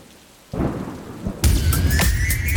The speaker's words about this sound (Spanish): Y ahí escuchamos la lluvia porque eh, cambia el tiempo